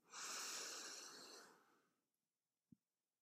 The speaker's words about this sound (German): Und dann Kiefer locker, Mund leicht öffnen und tief in den ganzen Körper atmen. Wir nehmen mal zusammen ein Atemzug. zwar jetzt. Atme ein.